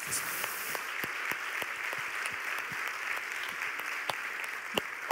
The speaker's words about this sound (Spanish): ¿Cuánto le dan un aplauso al Señor por eso?